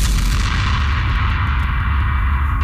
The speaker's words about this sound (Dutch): Deze impact zat overal in elke jingle.